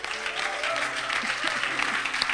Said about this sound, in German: Hey, wenn du glaubst, dass Gott dein Leben bunt und leuchtend machen mag und dass er kraftvoll und stark ist, dann lass uns ihm doch mal einen kräftigen, jauchzenden, jubelnden, fetten Applaus geben.